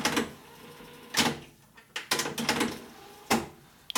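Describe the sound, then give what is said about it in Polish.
A cassette deck switching into rewind: several sharp mechanical clunks spaced about a second apart, with a soft motor whir running between them. No one speaks. “Przewijanie.”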